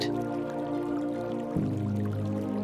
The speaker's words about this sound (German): Ein leises Plätschern erregt unsere Aufmerksamkeit.